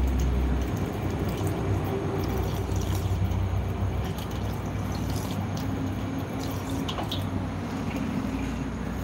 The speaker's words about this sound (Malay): Sekejap eh Nak minum air sekejap eh guys eh